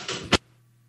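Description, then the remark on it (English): A person closes the doors: a door slides briefly and shuts with a single sharp thud, followed by a faint low hum in otherwise quiet surroundings. “Yeah, I'm just gonna close the doors here.”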